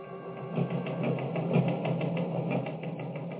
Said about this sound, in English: Teletype machine. The kind of music I've been listening to for years. I like it. It's exciting. News pouring in, invisible fingers pounding out the news that's filtering in from every corner of the world.